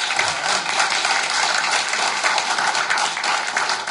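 An audience claps steadily, producing a dense, even wash of applause that holds at a constant loudness for about four seconds, with no voices heard over it.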